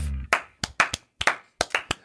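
Sharp hand claps in a loose, slightly uneven rhythm, about seven or eight bright smacks in pairs and clusters, as if two people clap not quite in sync. No voices.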